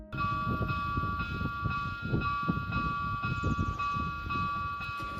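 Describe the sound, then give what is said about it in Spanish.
The railway level crossing barrier of Alfafar and Sedaví in Valencia, Spain, closing: a steady, high warning tone rings continuously while low, rumbling mechanical pulses thud in an uneven rhythm underneath, fairly loud throughout, with no voices. “es el ruido que hace al cerrarse el paso a nivel de Alfafar y e Sedaví, en Valencia.”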